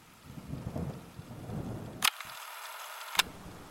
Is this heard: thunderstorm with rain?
yes